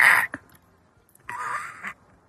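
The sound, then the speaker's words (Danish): A person imitates an old parrot with two harsh, raspy squawks: a short one, then after a brief pause a longer, strained screech. Fairly loud, with no talking. “Ja, det klarer du ikke så godt. Det er en gammel papgøje, den der.”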